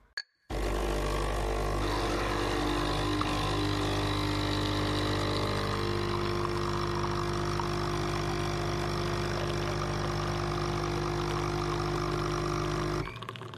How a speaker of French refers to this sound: C'était un café-machine à 2 euros au travail près de la photocopieuse